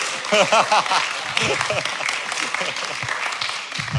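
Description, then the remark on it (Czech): An audience at a Christian seminar breaks into sustained applause, a dense wash of many hands clapping, with excited voices cheering over it at first, then the clapping carries on steadily and slightly softer. “A big applause”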